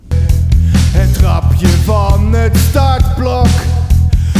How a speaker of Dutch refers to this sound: Ik had nog een liedje.